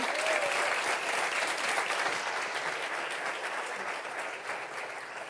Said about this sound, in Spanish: Dale un aplauso al Señor, hombre.